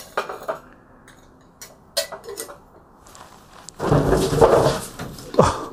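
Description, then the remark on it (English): A few light knocks and taps, then a loud clattering tumble as a plastic litter box step is accidentally knocked over and rattles to a stop, with no talking. “Apologies about the sound if it was loud. I knocked over their little step into their pooper.”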